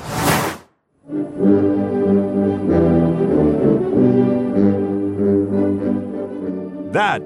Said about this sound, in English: is the sound of fanfare that welcomed Xi Jinping and Vladimir Putin to Uzbekistan today.